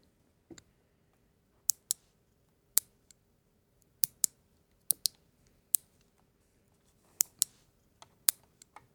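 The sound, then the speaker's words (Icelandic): Sharp, snappy clicks of toenails being clipped, about a dozen crisp snips at uneven intervals, fairly loud against a quiet background with no talking. “Það verður að klippa táneglur.”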